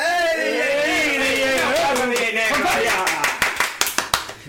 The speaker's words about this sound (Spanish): Es el, es el primer aplauso y el último.